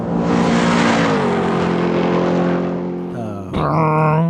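A car engine roars loudly and accelerates, its pitch climbing through the gears with a brief dip at a shift before revving up again. It is close and steady, and no one speaks.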